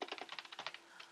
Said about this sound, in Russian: Это звук клавиш, э, вот звук щелчков мыши там.